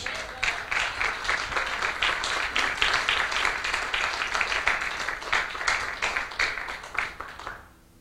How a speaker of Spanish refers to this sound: Ah, dale un aplauso a Cristo, hermanos.